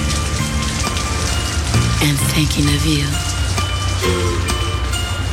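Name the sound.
rain falling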